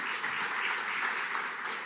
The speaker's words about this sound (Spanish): Dele un fuerte aplauso al Rey de la Gloria.